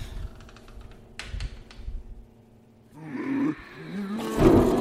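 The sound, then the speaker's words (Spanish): Wild beasts roar and growl in a loud, rough chorus that swells after a few sharp clicks, ending in a harsh, bellowing burst with no one speaking. “Las bestias gritan y el valiente mortal, sin dudar, les ofrece dulces.”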